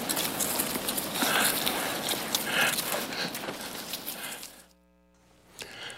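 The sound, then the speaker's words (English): A flock of sheep scrambles away from a stranger, their hooves drumming in a dense, rapid patter on the ground before the trampling suddenly drops off into near quiet. “sheep ran away from me, they are afraid of strangers”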